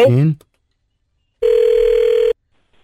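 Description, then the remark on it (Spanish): A brief voice is followed by silence, then a single steady ringback tone from an outgoing phone call, one flat buzzing ring lasting just under a second, clear and fairly loud. “ahí le estamos marcando, nomás no haga ruido, mi amor, ¿ok?”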